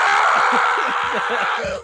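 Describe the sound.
A man screams loudly and without a break for about two seconds, a harsh, strained yell, with no other talking over it.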